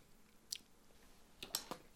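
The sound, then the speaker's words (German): Quiet, wet lip smacks while tasting a cold, rum-flavoured canned drink: one short smack, then a quick cluster of three about a second later, with no talking. “Mich, äh, entschuldigt, wenn ich gerade schmatze.”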